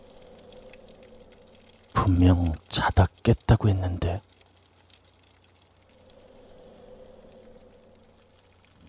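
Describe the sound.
Faint, steady running water hisses softly in the background throughout a phone call, swelling slightly near the end, while a person speaks briefly in the middle.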